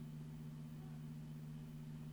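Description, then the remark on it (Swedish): A faint, steady low engine hum from a car outside, holding constant throughout with no voices or other sounds. “Det är en bil här utanför.”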